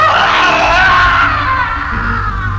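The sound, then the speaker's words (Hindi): A man screams loudly and without a break for a couple of seconds, a strained, raw cry that stays intense before easing slightly toward the end. “हिम्मत जुटाकर जब वो जरा सा पलटे तो अपनी बीवी का हंसता चेहरा देख जोर से चीख पड़े उनकी चीख सुन बेटा और बहू दौड़े दौड़े कमरे में आए”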